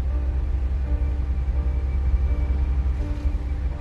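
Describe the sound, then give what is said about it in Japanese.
A steady, deep road rumble with a constant engine drone, like riding inside a car cruising at speed on a highway. There is no talking and the noise stays even throughout. “車は高速道路を快調に進んでいた”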